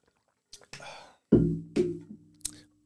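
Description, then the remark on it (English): Someone takes a drink: a couple of soft sips, then louder gulping swallows and a low throaty breath, with a short click at the end and no talking. “but hold on a second, drink break, drink break.”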